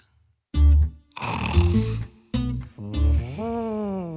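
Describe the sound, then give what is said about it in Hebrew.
A voice imitates an elephant asleep on the path snoring: a deep, rumbling snore, a long rasping breath, then another low, throaty snore that slides upward in pitch, with no other talking. “פיל ישן על השביל.”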